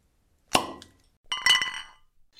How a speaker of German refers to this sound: Wir haben gerade eben schon angestoßen, unser heutiger Stargast hat sich äh, zu uns gesellt.